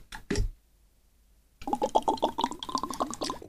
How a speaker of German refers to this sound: Bruder, das ist so ASMR-Gluckern gewesen, holy shit.